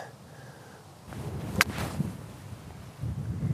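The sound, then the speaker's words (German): A single sharp, crisp strike of a golf wedge hitting the ball outdoors on a shot into the green, played with the wind, over low wind rumble and faint rustling. “Und wenn es richtig spannend wird, äh, ich schlag kurz, höre ich dir sofort wieder zu.”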